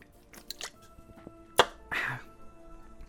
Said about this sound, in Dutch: Ik neem ondertussen even een slokje drinken.